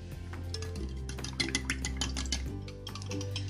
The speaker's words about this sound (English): So there is my milk added to all this. I'm going to get out a fork and whisk this together.